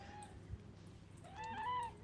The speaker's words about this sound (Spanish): Acá con Oprah y Areta les decimos que somos team gatas. Oprah y Areta son mis dos hermosas gatas negras.